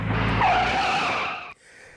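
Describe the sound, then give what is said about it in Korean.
A loud tire screech as a car's driver slams on the brakes for a sudden stop on a road with no cars ahead, a sustained squealing skid lasting about a second and a half before cutting off abruptly into a quieter rumble. “그 브레이크를 밟으며 오른손을 그녀 쪽으로 뻗는데”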